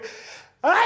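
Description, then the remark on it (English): A single sneeze: a breathy intake, a brief pause, then a sudden loud, bright burst with a voiced, rising edge. “Bless you.”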